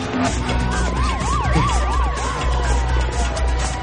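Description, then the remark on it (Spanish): A police car siren wails with quick rising and falling sweeps over a steady rumble of road traffic, fairly loud, with no one speaking. “Howard oye la sirena de un coche patrulla y decide ir hacia ellos.”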